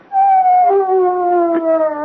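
A single dog howls in one long, sustained, wavering note that slowly slides downward in pitch, fairly loud, with no talking over it.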